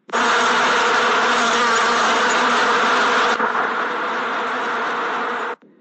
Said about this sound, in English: Before she knew it, the bees began to swarm around her.